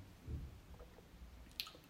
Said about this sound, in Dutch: Neem even een goede slok thee.